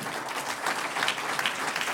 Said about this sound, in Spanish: Qué lindo es dar. Dije, qué lindo es dar un aplauso al Señor.